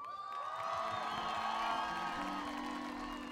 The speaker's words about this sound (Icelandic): gefu þeim gott klapp.